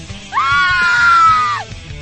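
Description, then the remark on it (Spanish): A young woman in a large concert audience lets out a shrill, high-pitched scream that rises, holds for over a second, then trails off, loud over faint background noise, as a singer shakes his legs while singing. “Sus pantalones de corte ancho pronunciaban sus movimiento, provocando que las mujeres jóvenes del público comenzaran a gritar”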